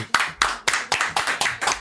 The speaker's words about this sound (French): Et puisqu'on est dans les applaudissements, nous avons le grand plaisir d'accueillir un baryton mondialement connu à Charleroi, à savoir Vincent Bertrand. On peut l'applaudir.